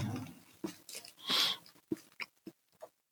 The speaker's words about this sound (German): Für alle Leute, die Schmatzen nicht leiden können. Wer Schmatzen nicht liebt, soll diesen Podcast verlassen.